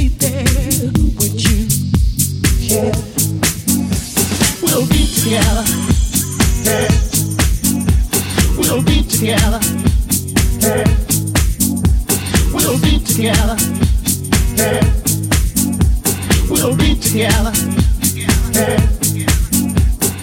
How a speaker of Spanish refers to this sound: Hoy comenzamos con sonidos muy Big house en nuestra primera hora.